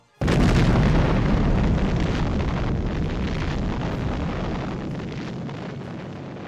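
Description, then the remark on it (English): A sudden, thunderous explosion shakes a ship at full loudness, filling the air with splinters of wood. A long, heavy roar of rumbling debris follows and slowly fades over several seconds, with no voices. “a thunderous explosion shakes the ship, filling the air with splinters of wood.”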